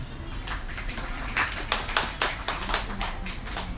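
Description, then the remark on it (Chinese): An audience at a talk event applauds to welcome the day's main speaker, a dense wash of many hands clapping with individual sharp claps popping out irregularly, holding a steady moderate level throughout with no voices. “那接下来，请我们掌声有请今天的主讲人。”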